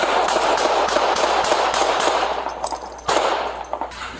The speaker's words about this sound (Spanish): Este es el momento en el que un hombre discapacitado y en silla de ruedas recibe nueve disparos a manos de un policía en Tucson, Arizona.